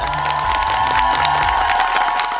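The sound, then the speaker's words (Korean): A crowd cheers and applauds with steady, loud clapping and whoops, a dense continuous roar that holds at the same level for a couple of seconds without any talking. “송아님의 용기에 진짜 큰 박수를 보냅니다.”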